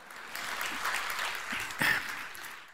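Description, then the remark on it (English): An audience claps steadily in praise of the Lord, a dense wash of many hands with no clear rhythm, swelling slightly near the end before trailing off. No one speaks over it. “Give the Lord a great hand clap for, for that.”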